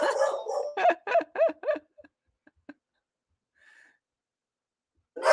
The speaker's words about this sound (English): Let the dog bark. We're fine. Dog is barking.